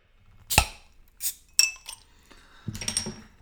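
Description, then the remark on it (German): Glasses clink together in a toast several times, sharp bright chimes with a brief ringing tail, followed by a flurry of quicker clinks and handling noise at the end. “Prost! Auf die nächste Runde von unserem Podcast”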